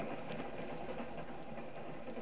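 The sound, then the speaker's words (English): A steady rumble of a moving train, with faint clicks of the wheels recurring at a loose rhythm over continuous low noise. No one speaks. “I leaned back and closed my eyes, listened to the rhythm of the train.”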